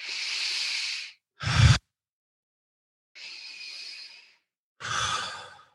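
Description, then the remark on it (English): Slow, steady circular breathing with no holds, clear, with airy inhales and exhales alternating in a loose rhythm, one sharper intake standing out, and brief quiet moments between breaths; no talking. “I'm just breathing and no stopping, right? It's a circular breath.”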